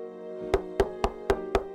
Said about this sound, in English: Just then, she heard a knock at her door.